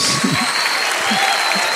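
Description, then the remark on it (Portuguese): Steady audience applause for a group of people just blessed in prayer, a dense wash of clapping at a constant level, with a few low murmured voices breaking through underneath. “Vamos aplaudir esse pessoal aqui, gente.”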